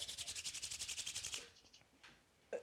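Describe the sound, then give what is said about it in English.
Dry hands rub briskly together close to the mic, a fast, steady back-and-forth rasping for over a second, then a few softer scuffs and a small tap as it stops. “Are your hands that ashy that they make noise in the mic?”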